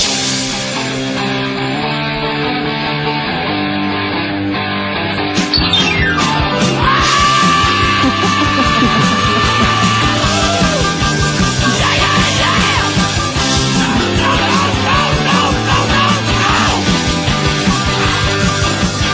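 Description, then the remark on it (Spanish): A loud rock track builds with driving instruments for several seconds, then a sustained, sweeping vocal scream bursts in over the full band, which keeps pounding along underneath. “Entonces, si tú vas con esa actitud a un tugurio de Nueva York a presentarte por primera vez, tu canción más famosa la tienes que empezar así, ¿no?”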